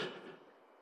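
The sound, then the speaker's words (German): A single sneeze: a sharp, breathy burst that quickly fades, heard alone at fairly low volume with no talking around it. “Gesundheit.”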